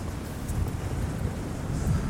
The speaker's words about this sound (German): Hier ist auf jeden Fall viel Wind.